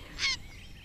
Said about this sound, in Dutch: Twee reigers die opvliegen. Ja, hier moet toch ergens een uh, reigerkolonie in de buurt zijn, hè?